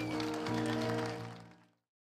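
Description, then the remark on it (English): An audience claps hands for God's word in a dense, steady patter over sustained musical tones, building briefly, then fading out into silence before a sudden sound at the very end. “Come on, let's clap our hands for God's word.”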